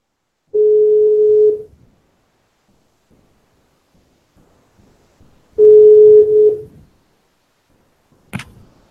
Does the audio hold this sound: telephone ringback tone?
yes